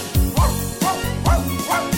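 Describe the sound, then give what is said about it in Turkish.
A dog barks four times in a steady, even rhythm, each bark fairly loud, over a continuous musical backing of a children's song about farm animals. “Çiftliğinde köpekleri var”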